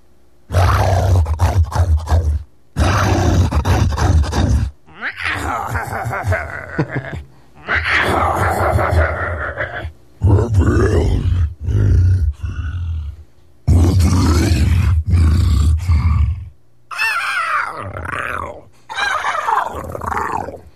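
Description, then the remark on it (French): A series of deep, gravelly human growls and roars from voice performers who train their voices to make monster voices, delivered in about nine loud bursts separated by short silences, each normal version followed by a modified, processed version. “ces gens-là, c'est ça ils travaillent leur voix pour faire des voix de monstres”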